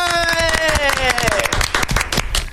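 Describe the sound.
A burst of steady, loud applause from a small crowd, many hands clapping at once, with a voice calling out a long falling whoop over the first half.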